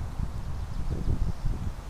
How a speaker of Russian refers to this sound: Ох. Видишь, ветер мешает. Да. Слегка. Ветер, к сожалению, ветер, к сожалению, сделал свое дело.